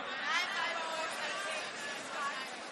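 An audience all shouting their phone numbers at once, a dense overlapping babble of loud calls that continues steadily for a few seconds without any single voice standing out.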